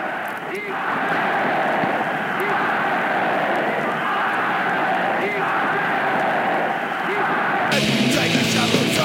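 A raw, lo-fi punk rock song blasts at full volume, with distorted guitars and hoarse shouted vocals over a relentless, dense wall of noise that shifts abruptly near the end.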